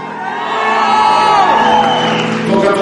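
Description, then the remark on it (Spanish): An audience at a church service erupts in loud, sustained shouting and cheering after the preacher calls for it, many voices overlapping in jubilant cries of hallelujah (aleluya) that swell and hold steady for a few seconds. “Alguien grite aleluya”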